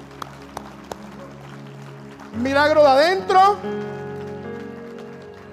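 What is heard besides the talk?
audience applause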